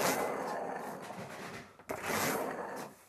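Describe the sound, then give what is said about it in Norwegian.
A studded tire rolls over a large metal demonstration plate in a home basement in Hol, showing how different tires make different sounds, making a steady, gritty rasping noise that breaks off for a moment partway through, then picks up again just as loud. No one speaks. “Nå kjører du over den plata som du snakker om her, med et eh, piggdekk.”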